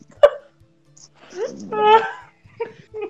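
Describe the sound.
A dog gives a sharp single bark, then a longer, drawn-out yelping bark and a short final yip, with voices faintly around it.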